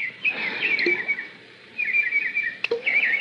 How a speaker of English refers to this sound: What's that? Oh, birds playing in the fish pond. Look at them happy birds.